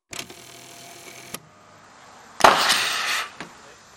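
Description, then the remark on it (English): Sharp impacts of volcanic rock, thrown into the air by a volcano, striking a car: a couple of brief cracks, then one loud crashing hit with a rattling, scraping tail, and a final lighter knock. No one speaks. “I heard something hit a car.”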